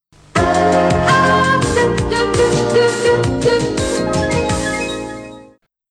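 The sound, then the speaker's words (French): A short, bright musical section jingle with layered harmonic tones and steady rhythmic accents plays loudly and alone for about five seconds, then fades out. “Alors, après ce magnifique jingle,”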